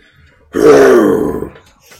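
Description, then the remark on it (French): A single loud, throaty vocal growl lasting about a second, a person imitating a lion's roar, rising abruptly and fading out, with no speech around it. “À cause tu fais la voix d'un lion des fois.”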